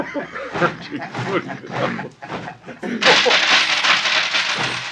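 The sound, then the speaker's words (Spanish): Coins spill and clink onto a hard floor in a quick scatter of metallic taps, followed by a steady rustling hiss, with muffled voices in the background. “bueno, después le dejo las monedas y los copeles porque no me puedo agachar.”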